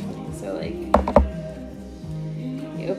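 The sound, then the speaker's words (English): A deck of affirmation cards with positive messages being shuffled: a few sharp taps and flicks in quick succession midway through, with a quiet voice murmuring in the background. “in the deck. And then you and shuffle them around.”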